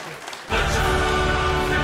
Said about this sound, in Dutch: Applaus.